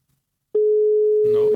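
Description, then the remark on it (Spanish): A steady, loud telephone busy tone after a call is hung up starts abruptly and holds for about a second, with voices starting to talk over it near the end. “Se nos colgó. ¿Qué pedo?”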